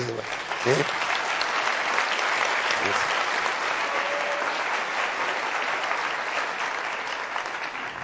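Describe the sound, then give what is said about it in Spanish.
Sustained audience applause, a dense, steady wash of many hands clapping at even loudness for the full stretch, with a few brief voices or cheers breaking through early on. “Aplaudan eso, por favor.”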